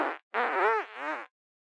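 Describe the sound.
A person imitates farting with their mouth, like the sound of stepping on the stones in the Bog of Eternal Stench from the film Labyrinth: three buzzy, wobbling blurts, one short and then two longer ones in quick succession, with no other talking.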